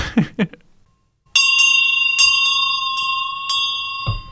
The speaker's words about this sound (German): Mit dieser Glocke habe ich das Jahr meine Premiere, genau.